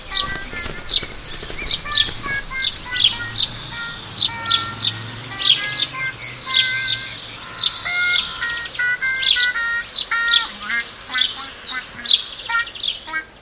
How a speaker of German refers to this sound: Und, weißt du es schon? Welches Tier suchen wir? Ich sag es dir. Es ist der Spatz.